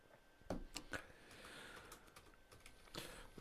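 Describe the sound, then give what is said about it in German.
Quick clicks of someone typing on a computer keyboard to search Google for a painter, irregular bursts of keystrokes, fairly quiet, with no voices. “Ich, ich, ich google Der mal.”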